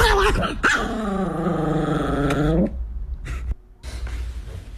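A chihuahua growls in a long, rising and falling snarl while a boy teases it, then lets out a few sharp, yappy barks, with some background noise between them.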